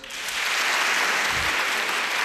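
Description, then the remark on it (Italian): Steady, dense applause from an audience voting for Machiavelli after a debate between Plato and Machiavelli. Many hands clap at once in a loud, continuous wash of noise that holds evenly for a couple of seconds without any voices. “Quanti per Machiavelli?”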